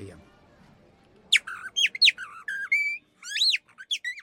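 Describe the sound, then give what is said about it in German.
A person whistles a lively imitation of a blackbird's song, made with the tongue against the palate: a run of quick, warbling, rising and falling phrases with short pauses, clear after a brief quiet moment. “Also einen Nauf, einen Gaumen und dann kannst du eine Amsel machen.”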